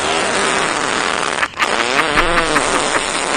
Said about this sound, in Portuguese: É, né? é peido